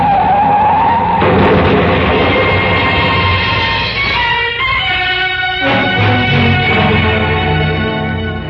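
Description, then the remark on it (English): Loud, sustained squealing of tires and brakes as a car skids hard through a wild curve with the gas pedal pressed down, the shrill screech wavering in pitch for several seconds against a roaring engine, intense. “In my ears was the screeching of brakes, of tires taking a wild curve.”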